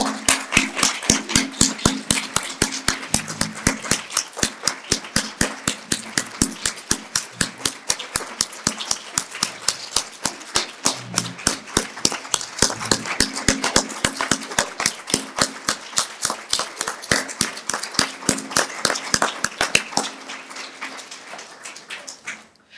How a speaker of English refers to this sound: Just give them a big round of applause.